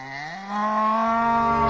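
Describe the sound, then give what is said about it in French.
A single cow moos, one long, loud, drawn-out low call that swells and holds steady for its whole length, with no voices around it. “Par contre, elle s'est passée il y a 30 ans et euh, elle a un rapport avec une vache.”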